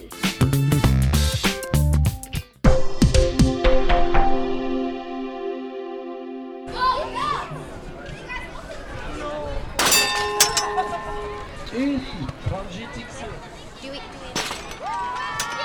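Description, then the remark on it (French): Clattering knocks and a ringing metallic clang fade out, then a school fair takes over: lively, overlapping children's voices and crowd chatter fill the space, with occasional shouts and bright clinks. “Comme vous l'avez compris, c'est à la kermesse que nous avons dédié cet épisode.”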